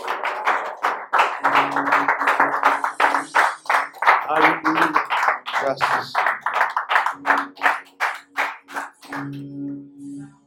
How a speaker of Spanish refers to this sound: aplauso a Dios.